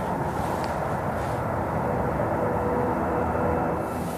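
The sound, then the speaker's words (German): A train rumbles past, a loud, steady roar of wheels and engine that fills the whole stretch without fading. No voices are heard. “Jetzt hört man aber den Zug ganz laut Zug.”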